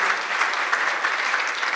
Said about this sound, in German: Und nochmal einen fetten Applaus. Danke, ihr seid Gemeinde.